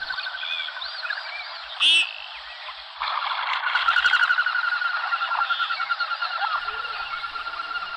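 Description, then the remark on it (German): Common goldeneye ducks over the Saale river produce a steady stream of whistling, warbling calls that swells louder about three seconds in, with one sharp brief burst early on. No one speaks. “Die Nomen est Omen, die Schellente. Der Vogel der Woche ist die Schellente, ein kleiner gedrungener schöner schwarz-weißer Vogel, zumindest was das Männchen angeht.”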